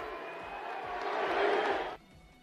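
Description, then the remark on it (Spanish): A big stadium crowd of Braves fans roars and chants "MVP" after a two-run home run by Ronald Acuña puts the Braves back in front, a dense, loud wash of voices that swells for about two seconds, then cuts off abruptly to a faint hum. “Con esto los Bravos se ponían adelante y la gente empezó a gritar MVP, MVP.”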